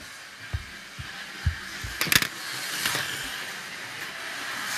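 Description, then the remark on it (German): Toy Carrera slot cars race around a track with a steady electric whir, punctuated by a few soft clacks and a burst of rattling clicks partway through. No one speaks. “Carrera bahn RENNEN”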